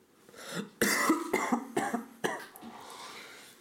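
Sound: cough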